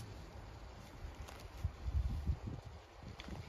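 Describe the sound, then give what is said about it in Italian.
Soft wind moves through tree leaves, a steady faint rustle that swells into a few low gusts midway before settling again. No one speaks. “Accorgiti del vento nei, nei, negli alberi, Tu senti questo suono grazie alle orecchie, ma la consapevolezza di questo suono è nelle orecchie?”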